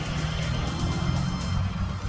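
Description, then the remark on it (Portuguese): A pickup truck braking in morning street traffic as a motorcycle approaches, heard as a steady, loud low engine rumble, with no voices. “a caminhonete quase, quase cruzou um pouquinho ali, mas deu para frear, que ali vinha uma moto.”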